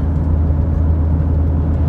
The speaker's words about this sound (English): this this big truck and trailer passes me. Give me one sec, guys. There's uh, there's some equipment, some trucks, tractor, and uh, after that the coast is clear.